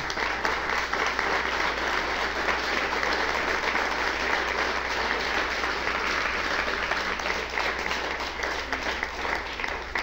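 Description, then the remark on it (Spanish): Sustained applause from an audience, given for the worldwide kehilá following a Torah study, a dense steady wash of many hands clapping for about ten seconds at an even, fairly loud level with no talking over it. “Les saludamos, le damos un aplauso también a la quejilá mundial.”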